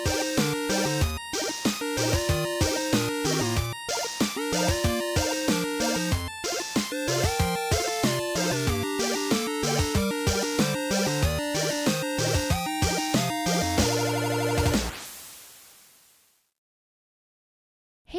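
Busy, upbeat instrumental music with a steady percussive beat and bright melodic lines plays loudly with no voices, then stops abruptly and rings out into silence near the end.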